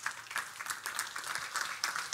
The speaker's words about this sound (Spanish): Den un aplauso fuerte a nuestro Dios.